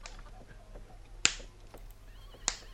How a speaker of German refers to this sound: wenn man sich mit einem mit einem, mit mit Knüppel oder so in, in, in die flache Hand schlägt.